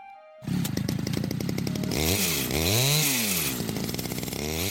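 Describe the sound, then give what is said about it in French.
A lumberjack's chainsaw starts up abruptly and runs loud, its engine revving up and down in rising and falling sweeps as it idles and throttles. No one speaks. “Et tu sais qui les coupe Le coiffeur de la forêt Le bûcheron avec sa tronçonneuse.”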